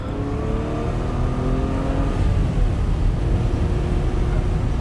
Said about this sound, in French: Ouais, on est sauvés. Mais les mafieux les poursuivent en voiture.